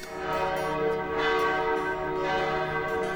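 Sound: church bell ringing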